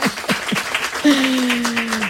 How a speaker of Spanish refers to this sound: un aplaudan, por favor, claro que sí.